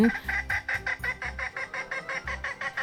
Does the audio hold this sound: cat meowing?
no